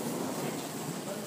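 A little girl's skateboard wheels roll steadily over pavement, a continuous gritty rumble with a faint rattling texture, even in loudness throughout, with no voices.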